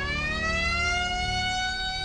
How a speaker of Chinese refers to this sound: 就在这沃伦斯基想要离开的时候，突然警报声大作，他被发现了。